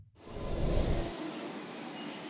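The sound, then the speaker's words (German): Loud, continuous rumble of railway station ambience at the station in Dessau, a train-like roar that swells over the first second and then holds steady with a broad hiss, no voices. “Ich stehe hier am Bahnhof in Dessau und muss das Gespräch nochmal kurz reflektieren.”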